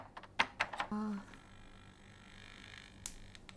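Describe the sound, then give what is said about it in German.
A few crisp keystrokes on the keyboard of a Romanian-built Chip 03 home computer on a living-room coffee table, typing LOAD in BASIC and pressing Enter to load a game, then a short low electronic beep, a stretch of faint hum, and one more key click near the end. “Wir laden Basic, schreiben jetzt Load, drücken Enter und laden das Spiel.”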